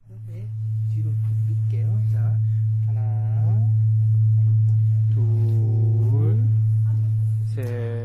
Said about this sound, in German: Pomsok lässt den Holzhammer fallen, der auf die Glocke trifft. Der Glockenklang ist klar und dröhnend.